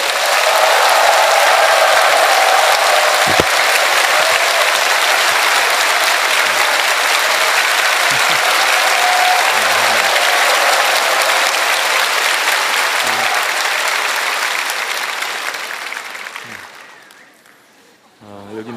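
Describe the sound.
Sustained applause from the Jiguchon Church audience welcoming the senior pastor as he comes up to the stage, a dense wash of many hands clapping steadily and loudly for about fifteen seconds before tapering off, with a few faint voices audible as it fades.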